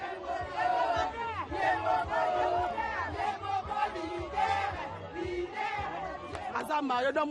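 A crowd of women cheers loudly and continuously for a woman walking on a straw mat laid as a red carpet, high voices overlapping in shouts, whoops and ululating cries that rise and fall without pause for several seconds.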